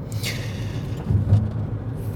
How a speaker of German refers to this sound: Die heutige Episode ist mal wieder on the road. Das heißt, während der Fahrt aufgenommen